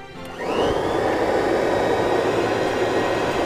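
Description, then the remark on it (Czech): Robotic vacuum cleaner motors start up with a quick rising whine, then settle into a loud, steady whirring roar that continues without pause. No one speaks. “Robotické vysavače mezi sebou závodili o každé smítko”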